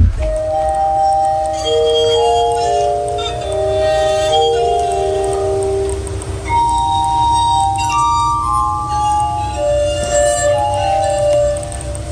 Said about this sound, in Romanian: deci orga de sticlă a lui Benjamin Franklin din 1761 există, poate fi folosită și sună așa.